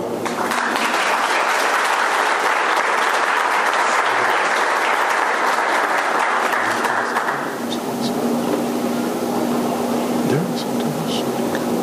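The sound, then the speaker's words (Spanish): Loud, dense audience applause at an awards ceremony for those recognized, with steady rapid clapping for about seven seconds, then thinning into a softer, scattered patter with a faint steady hum underneath. “Tenemos un muy fuerte aplauso para quienes han sido reconocidos en esta ocasión.”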